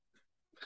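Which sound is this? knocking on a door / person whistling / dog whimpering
dog whimpering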